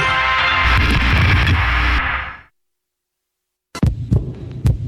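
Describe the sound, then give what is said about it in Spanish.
A heartbeat sound effect: a loud, throbbing low rumble fades into silence, then a run of sharp thumps returns in an uneven rhythm. No one speaks. “¿Escuchas? Es el corazón morado y amarillo de todos los mexicanos.”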